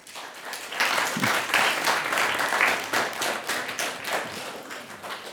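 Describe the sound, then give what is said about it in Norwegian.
A crowd applauds a screenwriter and a film editor as they are introduced, steadily for several seconds, dense overlapping claps forming a continuous, fairly loud wash of noise with no voices. “Gi de en varm applaus.”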